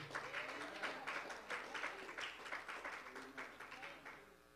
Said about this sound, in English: Come on, clap your hands to God.